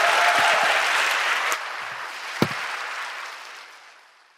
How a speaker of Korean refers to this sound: 다시 한번 박수 부탁드리겠습니다. 수고하셨습니다.